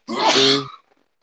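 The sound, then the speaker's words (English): A single sneeze, fairly loud, a short breathy burst with a voiced edge that cuts off quickly into silence. “Bless you.”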